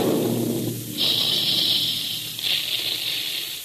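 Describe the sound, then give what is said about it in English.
A cereal puffing gun firing at a Quaker plant, where puffed wheat and puffed rice are made: a low rumbling start gives way to two long, loud blasts of hissing steam, one after the other, with no voices. “Listen to that big gun. That's the sound you hear all day long at the Quaker plants, where Quaker puffed wheat and Quaker puffed rice are made.”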